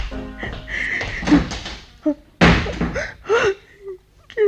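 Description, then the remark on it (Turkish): A door slams shut with a heavy, sharp bang partway through as a young man storms out, among other short knocks and bumps, with voices and muffled sounds in the background. “Ahmet Kerim kapıyı vurduğu gibi çekip gider ve Samiye'yi gözyaşları içinde bırakır”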